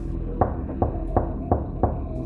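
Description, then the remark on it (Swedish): Five firm knocks on a front door at 4:30 in the afternoon, in a steady, evenly spaced rhythm, clear over a low background hum, with no voices. “Kan inte du öppna?”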